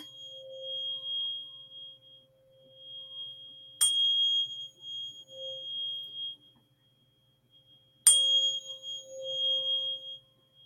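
A steady electronic sine tone plays from a phone, holding on with a thin higher whine above it, broken twice by brief sharp clicks. No one speaks.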